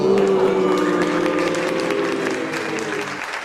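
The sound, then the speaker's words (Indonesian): A crowd claps loudly and steadily in dense, continuous applause, with a murmur of voices and some cheering mixed in, fading slightly toward the end. “Monggo sekali lagi berikan tepuk tangan yang gegap gempita”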